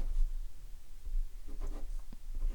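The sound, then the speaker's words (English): Quiet pen strokes scratch across an A4 sheet of paper in short bursts, with brief pauses between marks as someone writes a title by hand. No one speaks. “So, do you want to write the title?”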